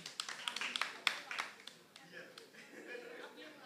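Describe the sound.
A small crowd applauds with a quick burst of dense, irregular claps that thin out and fade after a couple of seconds, leaving soft murmuring voices.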